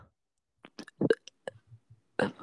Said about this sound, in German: Ein toller Rülpser? Was? Wo habe ich gerülpst, Digga? Ah, das hat sich danach angehört.